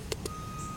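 Two quick reversing beeps from a garbage truck collecting garbage ring out over a low, steady engine rumble, with no one talking.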